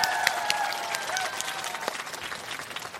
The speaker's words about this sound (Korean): 저 그리고 함께 연주해줄 저희 콘트라베이스 황호규 씨 큰 박수로 소개해주세요.